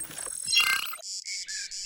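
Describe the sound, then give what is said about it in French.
A whooshing swell gives way to cicadas chirping in the Sainte-Baume forest near Marseille, southeastern France: a loud, shrill buzz pulsing in short, steady bursts, with no one talking. “Ah, je reconnais les cigales, j'imagine qu'on est dans le sud-est.”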